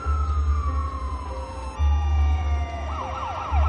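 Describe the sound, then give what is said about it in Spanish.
A police patrol car's siren wails over a low engine rumble as the car approaches along a street and passes by without stopping, its pitch sliding downward, then breaking into a rapid yelping pattern near the end. “Un coche patrulla se aproxima. Zulema se detiene y baja la cabeza poniéndose de espaldas a la calzada. El coche pasa de largo.”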